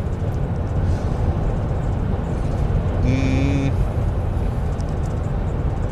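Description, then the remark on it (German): Steady low rumble of road traffic heard from inside a moving car, with a brief tonal whine or horn-like sound passing midway and a short murmured vocal sound. “ähm, Entschuldigung, war gerade vom Verkehr ein bisschen abgelenkt.”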